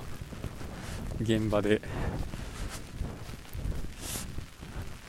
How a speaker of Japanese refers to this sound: 雨がとても冷たく、風もそこそこあるんで、めっちゃ寒いですね。